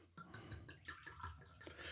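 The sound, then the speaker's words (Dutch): A drink is poured into a glass, quiet liquid sloshing and splashing in short bursts, with a few soft drips and clinks and a faint murmur in the background. “Hey, zal ik vast uh, dingen inschenken?”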